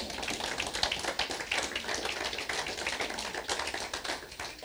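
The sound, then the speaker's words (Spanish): A church audience claps for the Lord steadily for several seconds, a dense, continuous patter of many hands with no pauses and no voices, holding at a fairly even loudness throughout. “Si estás contento, dale un aplauso al Señor.”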